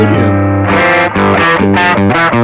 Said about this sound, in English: Using this Variax guitar, I can do I can transpose the entire guitar down a whole step, a half step, a whole step.